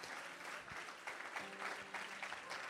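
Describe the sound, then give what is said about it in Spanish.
A church audience claps their hands for the Lord in a steady, dense burst of applause, loud and continuous, with faint tonal hum and murmuring voices underneath. “En el nombre de, si usted lo cree, denle un aplauso fuerte al Señor. Come on, give the Lord a hand clap.”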